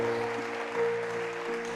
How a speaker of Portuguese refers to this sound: Se você crê nisso, dê uma salva de palma para Jesus. Aleluia. Aleluia. Glória a Deus. Aleluia.